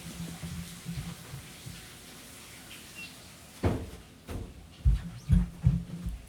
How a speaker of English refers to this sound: Oh, let me close the door.